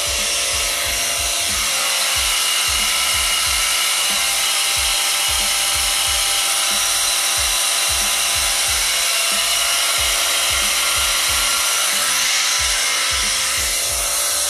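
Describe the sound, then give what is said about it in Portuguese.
A water pump runs loudly and steadily, a constant harsh mechanical whir layered over a rapid, rhythmic low thumping that continues unbroken throughout, with no voices. “pior do que uma bomba de d'água fazendo barulho”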